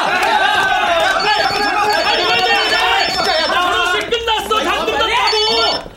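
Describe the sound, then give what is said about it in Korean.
A phone rings in short repeated bursts at a wedding, a thin high trill cutting through loud, overlapping chatter from a lively group of people talking and laughing. “나 전화 나 전화 왔어.”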